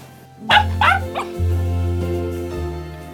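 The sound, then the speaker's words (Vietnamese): A house dog at a family Christmas barbecue on a rooftop in Saigon lets out three quick, excited barks, followed by a steady low hum lingering in the background; no one speaks. “Thậm chí mấy con chó nuôi trong nhà còn vui lây mà chạy theo dẫn lăn xăng hết cả lên”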